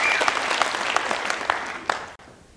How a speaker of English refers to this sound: Thank you for a few of you who clapped. Should have been everybody. Try that again.